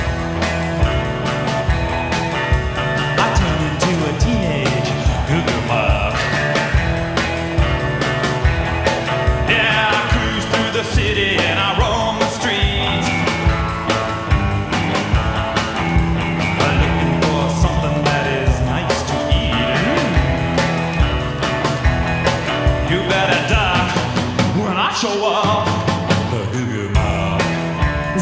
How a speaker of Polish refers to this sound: utwór, z e, serialu Wednesday, który możemy oglądać sobie na Netflixie